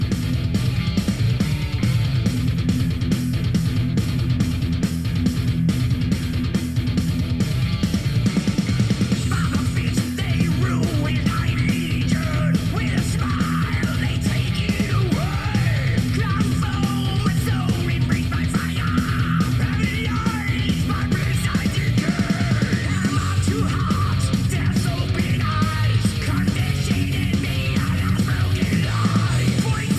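A loud heavy metal song plays throughout, with thick distorted guitars and steady pounding drums, and a harsh yelled vocal line cutting in over the dense mix partway through.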